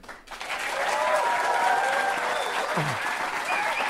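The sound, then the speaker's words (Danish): A crowd breaks into loud, sustained applause with cheering and a few whoops rising above the dense, steady clapping, starting abruptly after a brief quiet moment. “Der er godt gang i publikum.”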